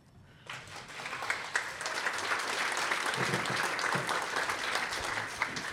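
An audience breaks into sustained applause, a dense wash of clapping that swells quickly after a brief quiet start and stays steady and loud, with scattered sharper claps throughout.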